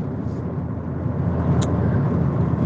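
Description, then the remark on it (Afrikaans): Steady low rumble of a running engine heard from inside a car, a constant droning hum with road noise throughout and no voices, with a faint brief chirp near the middle. “Ek is in my kar”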